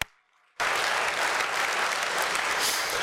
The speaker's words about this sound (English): Give him applause.